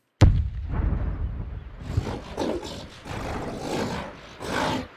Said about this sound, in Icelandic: Sú saga gengur um ormin sem kletturinn dreif napsitt af að hann hafi leiði þar á gulli sínu þar til hollendingur einn sem hétt Kumper fældi hann úr bæli sínu með fallbissu skotum svo hann gæti náð gullinu.